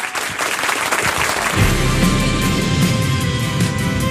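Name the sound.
audience applauding and cheering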